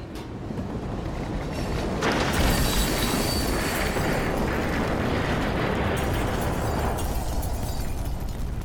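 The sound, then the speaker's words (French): A train rumbles loudly and continuously with heavy jolting felt throughout the train, then a piercing, deafening metallic screech from outside the train rises over the din and persists for several seconds, overwhelming, with no voices. “brusquement, vous ressentez des secousses dans tout le train, et un grincement assourdissant se fit entendre.”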